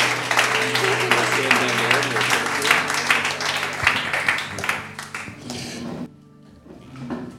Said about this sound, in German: Applaus für Matt.